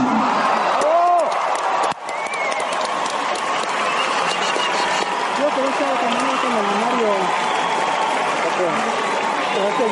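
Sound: audience applause and cheering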